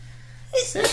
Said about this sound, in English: Bless you. Bless you.